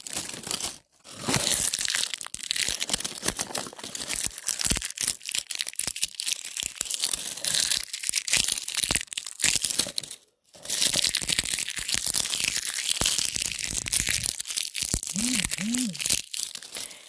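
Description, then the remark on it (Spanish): Loud, dense crinkling and crackling of marker label packaging being handled, with rapid irregular rustles, two brief pauses, and a short faint vocal sound near the end. “son etiquetas de marcadores.”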